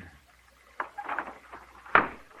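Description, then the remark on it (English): A window being opened: a sharp clack, a short rattling scrape as it slides, then a louder thud as it comes to rest, with no voices. “Open a window. Danny can't breathe.”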